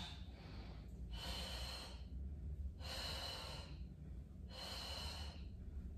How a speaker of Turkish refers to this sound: Dengemi kontrol ederek çok zorlamadan bedenimi kolumla beraber nefes al ver.